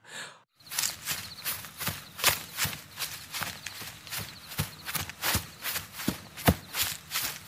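Hurried footsteps of a limping person running into bushes crunch through brush or dry leaves in a steady, uneven rhythm, with rustling between each step and no talking.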